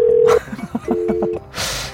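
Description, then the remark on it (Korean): A short burst of telephone keypad dialing tones heard over the line of a live radio quiz call as the caller dials another number: one sustained beep, then a quick rhythmic series of pulsed tones, followed by a hiss of line noise. “왜 딴 데 전화를 걸고 그래.”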